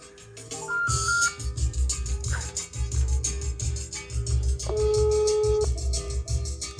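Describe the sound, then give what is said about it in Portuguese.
A telephone ringback tone plays while a call connects, its steady electronic tones sitting over a loud, rhythmic musical beat that runs throughout, with no voices. “Ah, tá, tá chamando, hein? Tá, tá chamando.”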